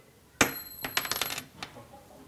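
A small metal engagement ring falls out of a card and drops onto a wooden table with a sharp, ringing clink, then bounces several times in quickening rattles before a last faint tap as it settles.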